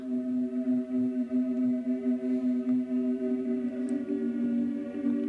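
Sacred liturgical choral music: voices hold a slow, sustained chord with rich, steady harmonics, moderately loud and unbroken, with no talking over it.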